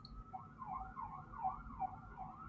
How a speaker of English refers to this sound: did you hear that? Are you hearing it? All right. So you're going to hear sirens and construction pretty often in the city. It is not a quiet city.